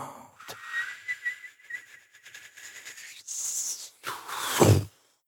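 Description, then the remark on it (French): A thin, wavering whistle of wind holds a high tone for a few seconds, then gives way to two louder, breathy gusts of rushing air, with no voices. “Le vent s'est mis à siffler, comme à travers une dent manquante.”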